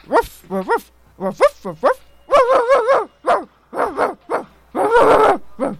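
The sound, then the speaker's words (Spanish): A small dog yips and barks in quick, high-pitched bursts, with a few whiny, wavering yelps between them, close and fairly loud, ending in a longer, rougher bark. “Un día llegó un perrito a su entrevista laboral.”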